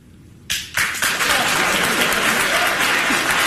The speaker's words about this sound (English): Where did we get this crowd? I like I like Bill Maher saying there, what did we get this crowd? Yeah, they, oh, I guess we're supposed to clap here because we don't actually agree with you. We're kind of weirded out.